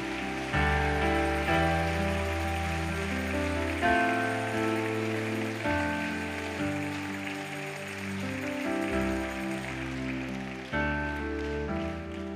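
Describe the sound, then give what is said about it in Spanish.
Steady crackling applause from an audience, clapping continuously through a loud, sustained keyboard or organ accompaniment that shifts between held chords, with no one speaking. “Se está dando un aplauso”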